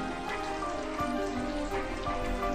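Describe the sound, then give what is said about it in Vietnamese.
Steady rain patters on a hard surface, a continuous dense hiss with scattered louder drops ticking through it, even in level, with no voices. “mỗi những ngày mưa tôi xoay tay vào ly cà phê ấm điện thở phì ra khói nhìn sang tấm kinh ướt mưa”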